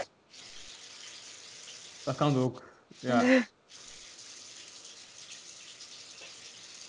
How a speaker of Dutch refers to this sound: Ik zit op mijn zolder en er is hier iemand vlees aan het bakken.